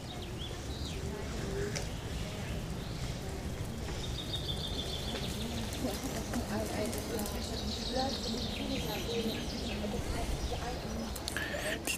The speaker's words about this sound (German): Ja, und jetzt geben auch die Ziegen laut. So gehört sich das.